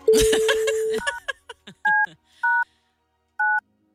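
Telephone dialing tones as someone places a phone call: a steady tone over a burst of noisy clatter, then several short, evenly spaced dual-pitch beeps with gaps between them, clear.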